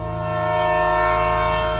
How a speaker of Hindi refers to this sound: मैंने ट्रेन के इंजन में थोड़ी जान फूकी